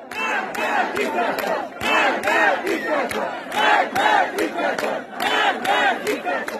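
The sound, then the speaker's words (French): A large crowd of protesters in the street chants the slogan "Marg bar dictator" ("down with the dictator") in unison, loud and rhythmic, with repeated shouted phrases and sharp accents recurring every second or so, voices overlapping into a dense roar. “les manifestants le scandent ouvertement dans la rue.”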